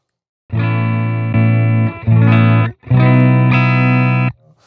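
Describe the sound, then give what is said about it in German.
An electric guitar plays a short riff of sustained, chunky power chords through a boost pedal with two-band EQ, volume and gain controls, resembling an Xotic AC Booster, not a distortion pedal, with light crunch and a rich, harmonic-filled tone, ending in a brief fading ring. “Der zerrt schon viel weniger.”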